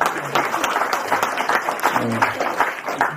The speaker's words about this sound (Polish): słowny, słowny, dajcie mu brawa, jak najbardziej.